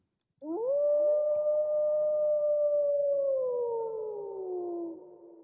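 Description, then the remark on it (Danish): A single wolf howls in one long, sustained note that rises sharply at the start, holds steady, then slowly sinks in pitch. It is loud, clear and alone, with no talking. “Var det en ulv?”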